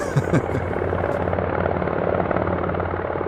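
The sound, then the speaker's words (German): Helicopter rotors roar steadily from behind a building, a dense, throbbing drone with rhythmic blade chop that stays loud and constant throughout. “Hinter dem Gebäude hören wir das Röhren von Hubschrauberrotoren.”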